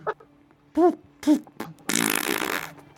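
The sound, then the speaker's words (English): Fart noises: two short, low, buzzy toots followed by a longer, wetter sputtering blast lasting most of a second, with no talking, for an angry diaper-wearing Fey loading its diaper. “its diapers up even more. Loaded diaper.”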